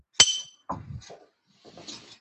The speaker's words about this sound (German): Dann stoßen wir mal wieder imaginär an. Prost. Prost.